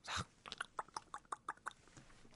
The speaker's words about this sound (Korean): 밤에 진짜 잘 차려서 혼자 조용히 혼자 먹으면 오이 소박이 씹는 소리가 아삭 아삭